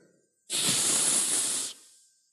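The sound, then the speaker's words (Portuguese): A voice imitates the steam release of a pressure cooker cooking beans with one loud, sustained hiss lasting about a second, forceful, then cutting off abruptly. “Eu corri um cantinho da panela de pressão. Fez.”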